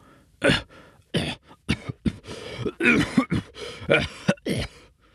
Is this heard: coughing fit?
yes